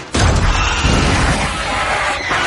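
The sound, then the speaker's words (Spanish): A closed door beside a window is broken down by Arya and one of the dead: a sudden loud crash bursts in, followed by a couple of seconds of heavy, continuous splintering and rumbling noise with no voices. “Junto a una ventana hay una puerta cerrada. Aria y un muerto la echan abajo.”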